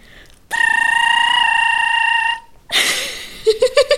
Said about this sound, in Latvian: Pareizā atbilde - zemes vēzis. Tā dziesma skan šādi.